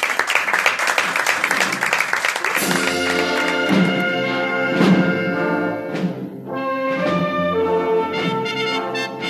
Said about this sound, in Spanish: Un millón de gracias a los miembros de la Peña Trianera. Mi aplauso para vosotros.